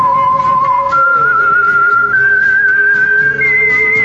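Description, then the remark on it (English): A person whistles the theme melody of the radio show The Whistler, a slow, steady melody, each long sustained note stepping upward in pitch, clear over a low background hum, with no talking. “The Whistler.”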